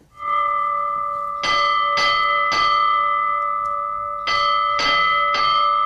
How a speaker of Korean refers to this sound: 이 시골 학교 종소리 오늘 보물소리예요. 보물찾기 1부에 나가는 노래 중간에 숨겨놓겠습니다.